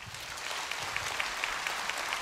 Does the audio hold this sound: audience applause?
yes